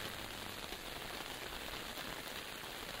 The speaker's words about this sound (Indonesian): Hujan sore itu tidak terlalu deras, namun juga bukan rintik-rintik.